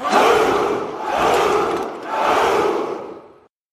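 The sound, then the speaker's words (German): A large crowd shouts the unhistorical Spartan battle cry "Hu Hu Hu" in unison, three loud, drawn-out bellows in a steady rhythm, each swelling and fading before the next, then abrupt silence. “Ja, ja, schon gut da haben sie natürlich auch ihren unhistorischen übrigens Schlachtruf her, das Hu Hu Hu. Das allerdings weniger wie Kampfgeschrei, sondern eher wie eine Herde triebgestörter Bonobos klingt.”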